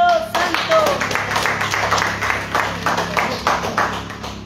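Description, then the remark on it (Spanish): A crowd claps for Jesus Christ in a steady, dense stream of hand claps, loud and continuous for several seconds, with a few brief voices rising over the clapping. “Palmas a Jesucristo.”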